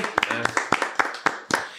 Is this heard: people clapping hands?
yes